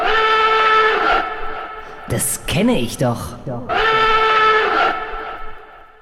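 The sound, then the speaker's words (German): An old radio show jingle of sustained, brassy chords plays loudly for about two seconds, breaks off while people talk briefly, then swells back and fades out. “Ich habe mal unsere alten Jingles aus der Schublade gekramt, die waren schon ein bisschen angestaubt.”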